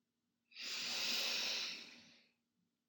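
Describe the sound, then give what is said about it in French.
A single long, deep inhalation through the nose during a guided breathing exercise, a steady airy hiss that swells over about two seconds and then fades, with no talking. “Pour cela, vous allez prendre une grande inspiration par le nez, comme pour inspirer très fort cette énergie.”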